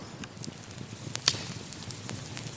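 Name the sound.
crackling campfire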